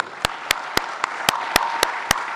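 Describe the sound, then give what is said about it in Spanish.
Audience applause for a keyboardist musician being introduced: a dense wash of crowd clapping, with sharp, evenly spaced claps cutting through about four times a second in a steady rhythm, at moderate loudness and with no voices. “Un aplauso para”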